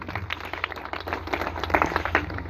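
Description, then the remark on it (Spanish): An audience claps together as applause to God, a steady, dense burst of many hands overlapping in a fairly loud, continuous patter with a low hum underneath and no voices. “Denle un aplauso a Dios.”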